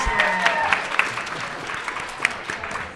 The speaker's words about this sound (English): And then thank you for the audience for being here. Yeah, Give you all a round of applause.